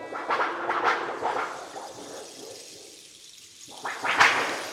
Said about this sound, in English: That time I was caught in the rain.